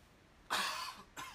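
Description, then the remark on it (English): Two fairly loud coughs from one person, the first a longer harsh burst and the second shorter, heard alone with no talking. “sorry, I keep coughing”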